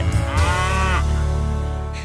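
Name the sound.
cow mooing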